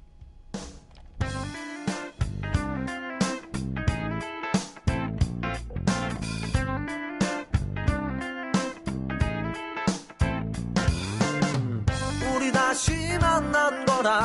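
A pop song plays at steady, full volume, with layered instruments and a driving rhythmic pulse throughout; no talking over it.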